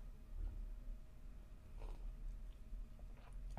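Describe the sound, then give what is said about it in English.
Quiet sips of hot coffee: a couple of short, soft slurping mouth sounds over low background hum, with no talking. “Oh, that was the first sip of it.”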